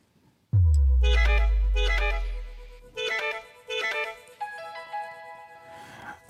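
A short horn jingle from the Finnish radio programme Kulttuuri Ykkönen: a deep booming hit, then four or five bright, punchy brass-like blasts in a bouncy rhythm, ending on a held chord. No one speaks.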